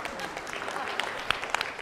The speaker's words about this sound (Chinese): 我觉得可以鼓掌啊！